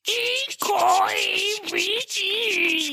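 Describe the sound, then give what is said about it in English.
A voice imitates the creaking of a ship's rudder ropes and gears with drawn-out, wavering groans, three strained bursts with brief breaks between them, loud. “we hear some creaking and like rattling as a lot of the ropes and the gears that make up the mechanisms that control the rudder”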